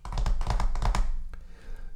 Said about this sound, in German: Wenn man zum Beispiel mit seinen Fingern über die Tischkante klopft,